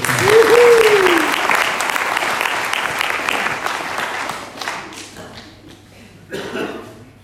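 An audience applauds, dense clapping that is loud and steady for about five seconds, then thins out and fades, with a brief swell near the end and a short vocal whoop at the start.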